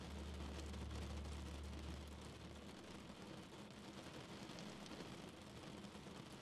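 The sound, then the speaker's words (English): Steady rain patters and hisses against a window, a dense, even wash of droplets with a low rumble beneath it for the first couple of seconds, then fading. No one speaks. “More loose, more free in mind and body, going deeper with each and every raindrop you hear fade off into the distance as you begin to sleep.”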